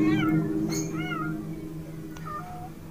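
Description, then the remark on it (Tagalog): Cats yowl and wail in drawn-out, rising and falling cries, several overlapping calls over a steady low hum, moderately loud, with no talking. “ang atungal lang mga pusa ay talagang hindi nagpapapigil.”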